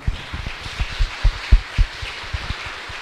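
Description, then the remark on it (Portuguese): An audience at a church service in Diamantina applauds steadily for a few seconds to greet visitors, a dense patter of many hands clapping at once with a few heavier claps standing out. No one speaks over it. “Vamos saudar com a salva de palmas.”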